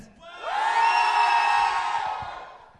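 A young audience in a hall erupts in loud cheering and high-pitched shouting one afternoon, swelling quickly and holding a sustained roar for about two seconds before easing off slightly.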